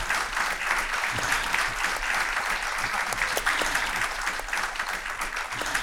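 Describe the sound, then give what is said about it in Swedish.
Steady audience applause at a DHR event, welcoming two people up onto the stage: a dense continuous patter of many hands clapping at an even loudness throughout, with no voices standing out. “Välkomna upp på scenen, en applåd för dem.”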